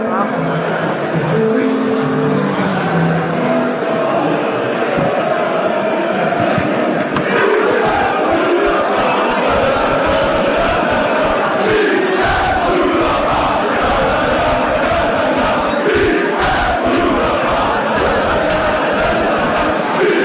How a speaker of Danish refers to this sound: Øh, så vi går lige stille og roligt herover mod indgangen nu her med alle de danske fans. Så, øh, så kommer der lige lidt lydkulisse nu.